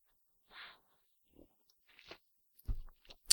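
Crisp crunching bites of some kind of root followed by quieter wet chewing, a few separate bursts over a few seconds with no talking, ending in a sharp loud crunch.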